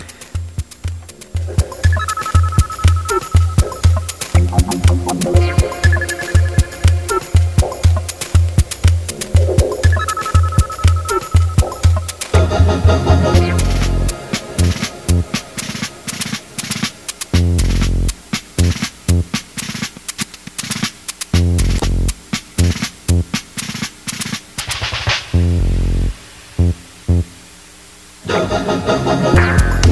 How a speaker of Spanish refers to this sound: un remix que le hizo … a, mm, a …, pero es su misma su canción Burbujas de la serie de televisión